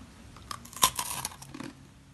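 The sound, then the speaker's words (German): A crisp bite into a crunchy snack, one sharp crack followed by a second of brittle crackling and chewing, fairly quiet, with no talking. “Ich äh, knusper mal rein.”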